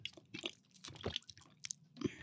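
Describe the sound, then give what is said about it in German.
Someone drinking loudly: wet gulping and swallowing noises, several in an irregular rhythm with smacking mouth sounds, loud, with no talking. “Wenn Leute so ganz laut trinken, findest du nicht eklig?”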